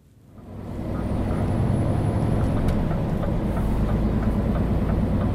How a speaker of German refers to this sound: Noch treibt ein Dieselmotor seinen Lastwagen an, aber nicht mehr lange. Über der rechten Spur ist schon die Oberleitung zu sehen.